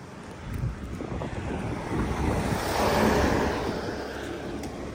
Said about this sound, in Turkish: Karşıdan biri geldiği zaman çok ee, yol değiştireceğim ama araba geliyor.